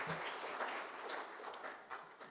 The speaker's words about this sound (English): give the choir a round of applause.